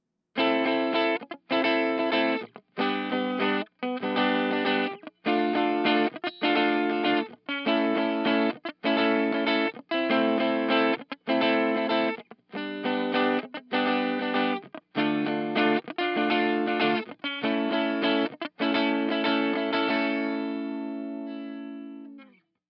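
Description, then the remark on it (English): An overdriven electric guitar played through a crunchy vintage-style Plexi-type tube amp set with gain 2, tilt 10, bass 3, middle 2, treble 8 and presence 7, strumming rhythmic chopped chords with short gaps, ending on a sustained ringing chord that fades out. No voices. “While this amp is more in the vein of a Plexi than it is a Major, it does the job well enough”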